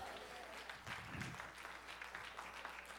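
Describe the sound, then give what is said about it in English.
An audience claps together, a dense, steady patter of many hands lasting the full few seconds at moderate loudness, with no clear voices standing out. “Clap here.”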